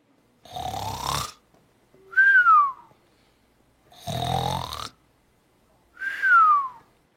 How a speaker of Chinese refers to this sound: 小小兵，仔细想一想哦，这个声音是不是跟爸爸睡觉或是妈妈睡着的时候会发出的声音呢？你们知道是什么声音吗？打呼声。我们的答案是打呼声。 是打呼声吗，国王？ 答案就是打呼睡着的声音哦。